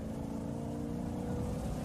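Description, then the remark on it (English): A steady, loud motor engine drone from a car chase sound effect holds a constant low rumble throughout, with no clear revving surges and no voices. “I just want to do uh, a switch over some Syrinscape. I love these sounds, getting some car chase stuff”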